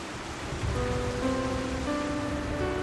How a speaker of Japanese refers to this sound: ある嵐の夜大雨が地面を叩き暴風が木々を揺らした